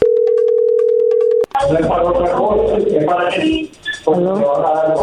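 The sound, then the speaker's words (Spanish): A telephone call's steady ringing tone hums for about a second and a half as a number is dialed, cuts off abruptly, and is followed by voices talking over the line. “No haga ruido, ahí se está marcando.”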